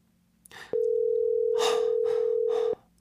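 A phone's ringback tone sounds once as a mother calls her daughter: a steady, mid-pitched electronic hum lasting about two seconds, with soft breathy noises underneath and no talking.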